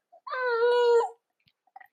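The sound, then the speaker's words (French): A baby lets out one sustained, wavering wail lasting about a second, fairly high-pitched and steady, followed by a couple of faint little whimpers. “pardon, il y a une petite coupure bébé”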